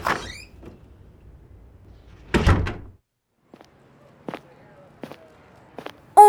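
A door swings open and closes with a loud, rattling thud as a person in a jacket runs out, followed by a few light, scattered steps or taps that fade in and out.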